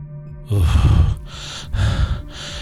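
Heavy, ragged panting from a young man who has just run through a crowd, a few loud breathy gasps in and out with short pauses between them, and no one speaking.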